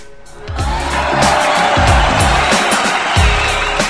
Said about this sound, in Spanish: Fuerte el aplauso, público conocedor.